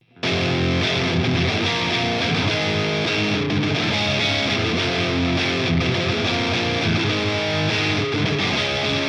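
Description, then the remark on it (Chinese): A heavily distorted electric guitar, connected by cable to effects units and an amplifier, plays loud and sustained with thick, buzzing chords and a steady churning rhythm, continuous for about nine seconds with no voices. “但是电吉他的琴身啊，一般都是没有共鸣箱的，所以光是一把电吉他还不能组成一个完整的发声系统，那必须得用连接线把吉他和效果器啊、音箱啊这些设备都连接起来，才能发出它应该有的声音来。”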